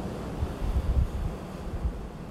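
Ocean waves wash steadily onto a beach, a continuous rushing surf with low rumbling swells, mixed with some wind buffeting. No voices are heard.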